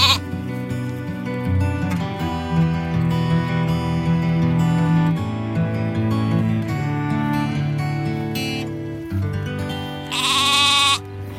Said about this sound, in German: Hier sehen wir unsere Zwergschafe. Das sind Wesson-Schafe aus der Ile de Wesson, Val der Bretagne. Die sind extra so klein und wir haben die halt gewählt, weil das eine Rasse ist, die klein bleibt und so unter den Reben eigentlich durchkommt.